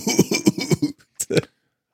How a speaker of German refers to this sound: Ähm, das war der hustende Hund.